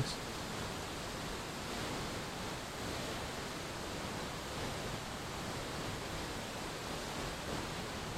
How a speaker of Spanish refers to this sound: Regresa toda tu atención al sonido del agua y deja que éste te regenere, te purifique y te sane.